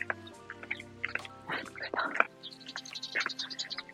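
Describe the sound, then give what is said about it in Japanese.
A small toy poodle yaps from the second floor in a rapid string of short, high, squeaky barks, somewhat muffled, with brief pauses between bursts. “寒いのはね、2階からは読み下して吠えてくるのよ。”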